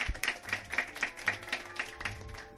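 An audience claps together to thank a speaker after a talk, a dense patter of many hands with regular bursts, moderately loud, sustained throughout with no talking over it.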